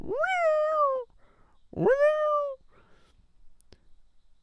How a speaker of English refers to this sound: Oh my gosh. It borderline sounds like a person. It's like a it's like a scream. Oh my gosh, dude, is that a panther? Guys, I'm not just I'm not playing with you right now. I think we got a panther live on the pod.